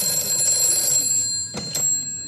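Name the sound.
telephone ringing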